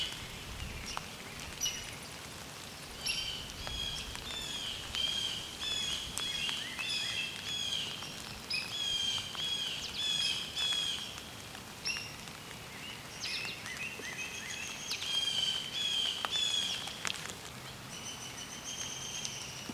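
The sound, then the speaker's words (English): High-pitched squeaky calls of a hairy woodpecker, repeated in short bursts, ring out over a steady rain-like patter and background bird chatter, with no talking. “Oh, and a hairy woodpecker too. That high pitched kind of squeak.”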